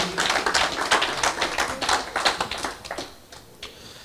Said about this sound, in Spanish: ¿Por qué no le das un aplauso a Dios con todo tu corazón, amén, por la vida de cada uno de los que están aquí?